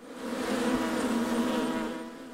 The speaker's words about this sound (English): the last home visit I noticed that that um, there was a lot of bees coming out from the, the front of the house.